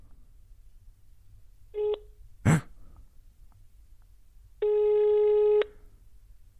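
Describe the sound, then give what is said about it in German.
A phone call to a woman rings out over a speakerphone: a short tone, a quick sharp breath, then one long electronic ringback tone buzzing for about a second against quiet background hiss. “Ähm, vielleicht geht sie ja gar nicht dran.”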